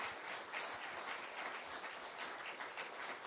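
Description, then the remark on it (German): An audience applauds steadily to welcome a pastor onto the stage, a dense, even wash of many hands clapping with no single claps standing out, sustained at a moderate level with no voices. “Heißt ihn doch mit einem Applaus ganz, ganz herzlich willkommen.”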